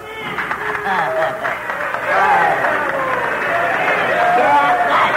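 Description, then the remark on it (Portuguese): A crowd bursts into applause at the opening presentation of PRK30, a dense, steady wash of clapping mixed with cheering and excited voices, loud and sustained for several seconds. “Palmas para o grande asno microinfame.”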